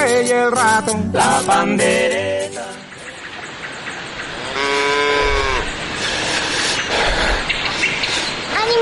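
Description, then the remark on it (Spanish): A cow moos several times in quick succession, then lets out one long, drawn-out moo, all over a steady hiss like falling rain. “señora vaca, ya verás que esta travesía valdrá la pena. Es que es muy lejos.”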